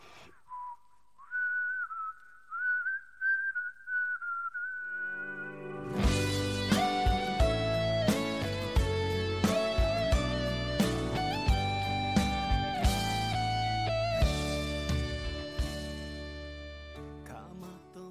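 A pop song opens with a lone whistled melody for a few seconds, then a full band comes in with a steady, punchy drum beat and layered instruments, playing loudly with no talking.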